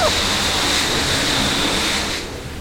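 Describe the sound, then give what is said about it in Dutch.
A train wash runs with large spinning brushes about three metres tall and a metre in diameter, turning very fast to scrub the train's surface: a loud, steady rush of spraying water and scrubbing with a thin high whine, easing off slightly at the very end. “En die draaien dus heel hard rond en die zorgen ervoor dat het oppervlak lekker geborsteld, lekker geboend wordt.”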